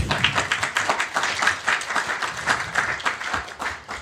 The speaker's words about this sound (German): Der Applaus gilt ihm.